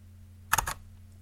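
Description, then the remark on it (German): A camera shutter fires once at a shutter speed of 1/500 second, a crisp mechanical clack made of two or three tightly bunched clicks, over a faint steady low hum. “Bei einer 500. hört die sich so an.”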